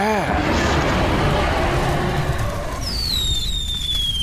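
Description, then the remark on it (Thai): Dense, continuous crackling and rumbling fireworks, including a big firework burst, fill the whole stretch, with a thin descending whistle sliding through the last part, loud throughout. “ว่าแล้วมังกรไฟก็ได้พ่นพลุลูกใหญ่ออกมาอีกครั้ง”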